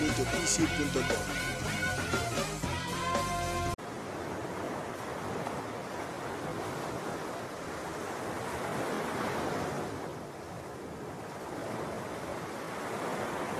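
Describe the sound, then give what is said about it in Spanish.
After a few seconds of music cut off abruptly, steady ocean surf takes over in a Fondo Radio station spot, waves breaking and washing ashore in a continuous, fairly loud roar that swells and recedes, with no voices. “¿Escuchas el oleaje?”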